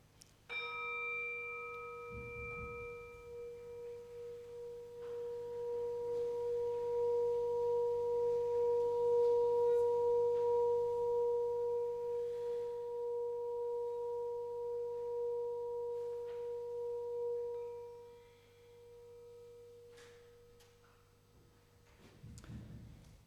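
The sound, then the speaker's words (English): A singing bowl is struck once to begin a moment of silence, ringing with a sustained, shimmering hum that slowly swells and fades over about twenty seconds, heard clearly on its own with no talking. “So before we begin, we uh, usually have a moment of silence, begun with uh, the sounding gong or the sounding bowl sound, and we're just going to sound that and then listen to a, uh, the silence.”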